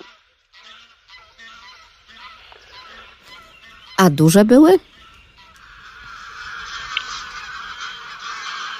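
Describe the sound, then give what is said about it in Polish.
A flock of greylag geese honks continuously, a dense chorus of nasal calls, with a brief loud burst of honking and a person speaking briefly over it. “I tutaj gęga gęgawa przede wszystkim.”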